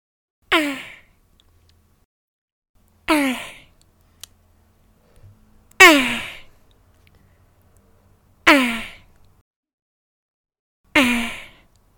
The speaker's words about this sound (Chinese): 这是一只乌龟在交配的时候的声音。